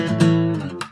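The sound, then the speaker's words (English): Two strings ring out together in tune, brought into harmony, a steady, sustained blended tone with a few soft attacks, fairly loud, fading near the end. “And I got to bring that one into harmony so it can sound like this.”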